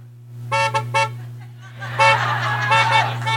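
Car horns in a parking lot honk in a rhythmic, tune-like pattern, playing along with a song: three short blasts, a pause, then a denser run of overlapping honks, all over a steady low engine hum.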